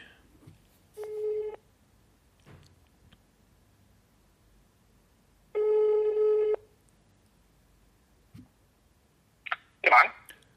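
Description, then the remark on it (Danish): Two steady ringback tones of about a second each sound a few seconds apart over a faint line hiss as an outgoing call is placed on a Thursday morning to a man at the Fødevareministeriet (Ministry of Food), then clicks and a rustle as the call is picked up. “Øh, så ringer jeg lige op til ham, og jeg håber, han tager den.”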